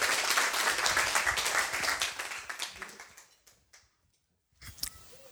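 Loud applause from a crowd, dense clapping that holds steady for about three seconds, then thins into a few scattered claps and fades out, followed by a brief faint sound.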